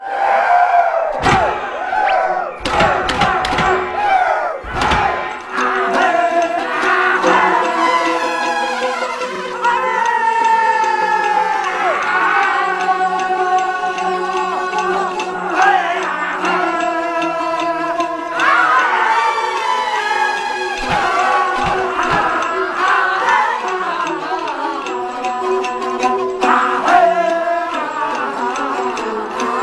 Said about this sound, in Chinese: 距西安一百里开外的地方，以当地民间说书艺术发展形成的一种戏曲剧种，那就是华阴老腔。高亢、磅礴、豪迈。